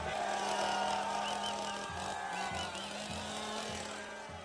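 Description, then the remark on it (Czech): A chainsaw engine drones loudly and steadily, its pitch dipping and surging in a few quick revs during the second half, with no one speaking. “Eh, jo, samozřejmě, on hodně mává tou motorovou pilou.”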